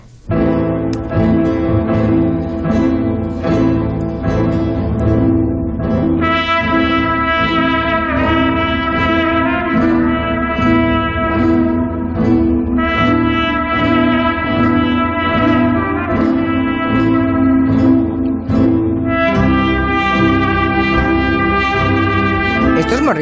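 A sweeping orchestral theme from the score of the western film Rio Bravo, the piece Sergio Leone wanted for the final showdown of A Fistful of Dollars, plays loud and steady for the whole stretch, with long sustained melodic lines soaring over a rich, full backing.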